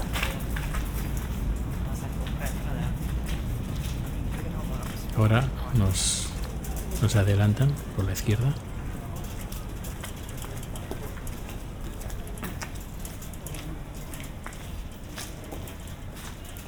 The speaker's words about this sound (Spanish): Los crujidos cuando andamos son de las pequeñas piedras. La bicicleta. De las pequeñas piedras que se tiran en el suelo pues para poder agarrarnos cuando hay nieve o cuando hay hielo.